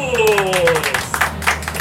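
An audience breaks into applause for a speaker being introduced, a steady wash of many hands clapping, while a brief gliding musical tone sweeps downward at the start.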